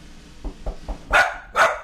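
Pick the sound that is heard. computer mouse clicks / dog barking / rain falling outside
dog barking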